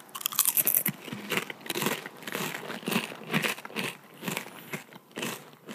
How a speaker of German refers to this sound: Jetzt hört ihr einfach zwei Leute, die einen Chip essen. Ist das nicht bescheuert?